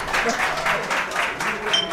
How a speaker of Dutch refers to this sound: Nou, dan bedank ik jullie hartelijk voor dit gesprek. Ja, bedankt dat we aanwezig mochten zijn. graag gedaan. Superleuk, nou, applaus mensen.